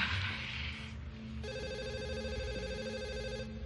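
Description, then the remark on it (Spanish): A telephone rings for the Professor, who answers it, with a single sustained electronic trill lasting about two seconds, bright and buzzy, over a low background rumble that follows a brief burst of hiss. “El profesor responde al teléfono.”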